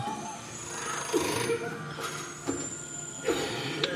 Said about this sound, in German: Und dann klingelt am Rand der Wand, ihr wisst nicht genau wo, ein Telefon.